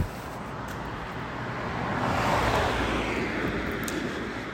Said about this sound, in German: Ähm, und jetzt kommt wieder ein Auto, ich bin mal ganz kurz ruhig.